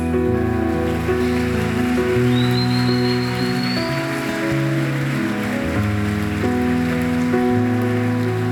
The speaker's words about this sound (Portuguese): Se você viu alguém fazer essa oração, dê um abraço nessa pessoa enquanto nós aplaudimos ao Senhor em nome de Jesus Cristo.